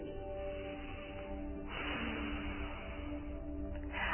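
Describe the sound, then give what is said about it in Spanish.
A steady, soft rush of air exhaled through the nose during calm, normal breathing, a continuous breathy hiss that swells slightly partway through, fairly quiet with no talking. “Observa la diferencia que hay entre el sonido del aire saliendo por la nariz”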